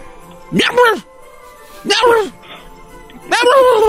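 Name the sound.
voice imitating a cat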